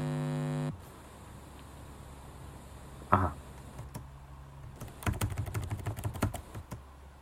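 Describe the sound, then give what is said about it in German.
Computer keyboard keys clicking as someone edits an audio recording, pressing K to jump to the end of the track and the left arrow key to move back: a steady tone cuts off, a lone keystroke follows, then a quick burst of several rapid presses near the end over a low electrical hum. “Dazu gehe ich mit K an das Ende und mit Pfeil links etwas weiter nach links in die Spur rein.”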